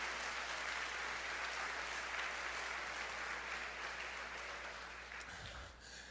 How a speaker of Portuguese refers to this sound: Mas essa, aleluia, aplauda forte a Jesus.